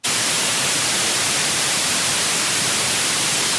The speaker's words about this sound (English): Now, you've certainly heard white noise in the hiss of an untuned radio.